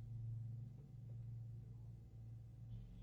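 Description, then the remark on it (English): A steady, low engine drone hums continuously from a lawnmower running outside the window, faint and muffled with no speech over it. “See, see you can hear it, lawnmower.”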